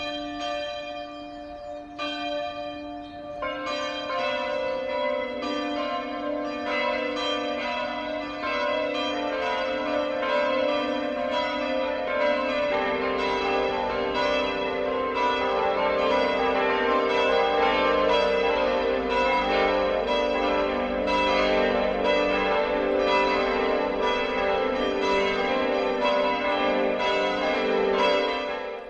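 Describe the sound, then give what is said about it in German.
Several church bells ring together for the Sunday 12 o'clock midday ringing in Etzelwang, a village of nearly 1,500 people in the Upper Palatinate (Oberpfalz), Bavaria, their overlapping strokes building into a dense, continuous peal with rich resonant overtones, steady and loud throughout with no voices. “Das Mittagsläuten kommt heute aus Etzelwang in der Oberpfalz.”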